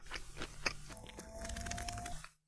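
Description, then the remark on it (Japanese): Chewing of a big mouthful of broccoli, a whole floret taken in one bite, with repeated moist crunches and squelches in an uneven rhythm, fairly loud, with no talking. “ちょっとね、一房を一口で口の中に入れるのは無謀でしたね、今。もぐもぐもぐもぐしてる時間全部ちょっと早送り気味にしようかなって今思ってますけど、いやー、めっちゃくちゃうまい。”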